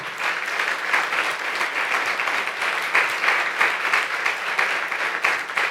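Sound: audience applauding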